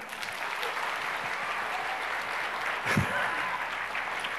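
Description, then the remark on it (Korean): Steady audience applause as Bacchus, a Korean-style Gatorade, is presented to the teachers, a dense, even patter of many hands clapping with no pauses, swelling briefly near the end before continuing at the same level. “박수 한번 해주십시오.”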